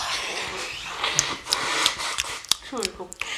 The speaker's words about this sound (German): Ich habe auch gerade ins Mikro gegähnt.